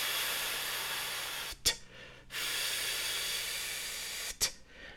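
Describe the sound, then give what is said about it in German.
Steady breath hisses like a long "fff," each cut off by a sharp "t" puff, repeated twice in a slow pumping rhythm, a voice imitating pumping up an imagined air mattress as a breathing exercise. “Und zwar, indem wir mit F und T stoßweise ausatmen.”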